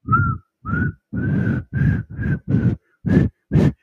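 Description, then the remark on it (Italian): Someone whistles a series of eight short, breathy notes at a steady pitch, each blown in a separate puff with brief pauses between. No talking. “Io non so fischiare.”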